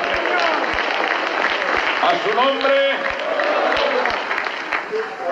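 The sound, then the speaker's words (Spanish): An audience at a church service claps for the Lord steadily throughout, a dense crackle of many hands with sharp low thumps scattered in, while voices call out over the applause for a moment in the middle. “En el nombre de Jesús que fuerte ese aplauso si es para el Señor.”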